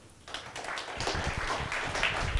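An audience breaks into applause for an audience member, a dense wash of many hands clapping that starts abruptly and holds at a steady, moderate level for a couple of seconds.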